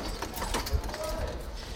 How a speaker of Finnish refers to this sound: Aasi löntystää Gaasan kaupungin laitamilla ja vetää kaasupulloilla lastattuja rattaita. Se normaali Gaasan näky.